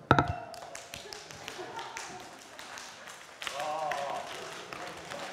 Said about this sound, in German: Kennt ihr es auch, wenn man manchmal ein bisschen müde ist und dann muss man sich mal wachklopfen? Ja, lass mal kurz wachklopfen, oder?